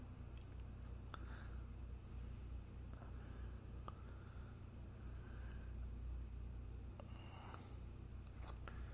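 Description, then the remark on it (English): The rough, struggling engine of a broken-down car rumbles steadily at a low pitch for the whole stretch, with scattered clicks and knocks rattling over the drone and no one talking. “His car is broken like him.”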